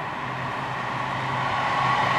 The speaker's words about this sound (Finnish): Nyt menee muuten juna, joo.